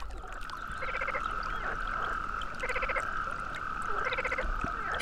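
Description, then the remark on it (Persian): A chorus of frogs croaks steadily, with a sustained trilling drone and repeated bursts of rapid, pulsing calls about every second and a half, fairly loud, no voices. “قورباغه ها از این حرف فیل ناراحت شدن و گفتن درست ما کوچیک هستیم ولی صدای خیلی خوبی داریم و شروع به سر صدا کردن”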